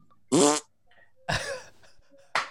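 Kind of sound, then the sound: vocal imitation, voice imitating a fart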